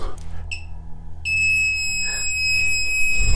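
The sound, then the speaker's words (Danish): A bug detector, held right up against a wall to search for hidden microphones, gives a short high beep, then after a brief pause settles into a steady, piercing electronic tone that holds loud over a low background rumble. “Der skal komme en konstant tone eller en hurtig, meget hurtig biblyd.”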